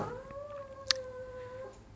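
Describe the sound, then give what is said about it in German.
A small dog lets out a thin, sustained high-pitched howl lasting nearly two seconds, steady, with a brief sharp click partway through and no talking. “ja, du stammst vom Wolf ab, haben wir auch gehört, aber von einem ziemlich kleinen Pepito-Wolf.”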